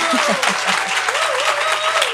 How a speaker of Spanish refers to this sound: 100 sucursales de pastel. Aplauso por tus 100 sucursales, ya,